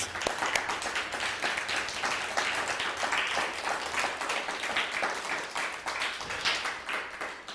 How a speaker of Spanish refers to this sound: Pues bienvenidos todos. Ahora sí, nuevamente un fuerte aplauso. Gracias a todos ustedes.